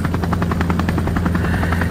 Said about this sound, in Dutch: Een andere bioloog beweert dan weer dat het lage brommende geluid van een helikopter dat dat lijkt op de brul van een mannetje.